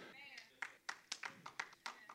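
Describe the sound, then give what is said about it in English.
Steady, rhythmic clapping from an audience, about eight sharp claps at an even beat, moderately loud, with a brief voice trailing off just before the claps begin. “See how they clapping, bro.”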